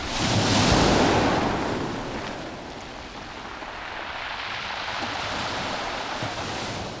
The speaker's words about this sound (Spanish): Yo sí, aunque solo sea para escuchar la marea arrastrando el manto pétreo y blanco. Y allí va una ola.